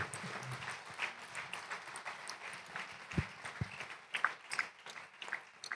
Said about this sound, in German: Also ihr dürft auch gerne zwischendrin applaudieren hier.